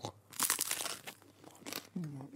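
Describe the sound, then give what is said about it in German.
Someone bites into crusty bread spread with salted butter, giving a loud burst of dry, crackly crunching, then a shorter second crunch, followed by a brief appreciative hum from a voice. “Es klingt vor allen Dingen oh. knusprig”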